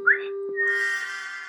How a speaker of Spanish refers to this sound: ¿Qué es ese silbido?